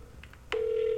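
Touch-tone phone dialing Sega's 1-800 phone line: a couple of faint, quick beeps, a click, then one clear, steady electronic tone that holds loud until the end. No one speaks.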